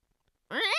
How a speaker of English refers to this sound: That's a fucking cat.